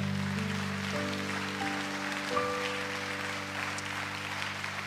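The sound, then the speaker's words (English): A church audience claps to the Lord during a worship service, a dense wash of many hands over sustained organ or keyboard chords, moderately loud and continuous from start to finish. “In the name of Jesus, can you clap to the Lord right now?”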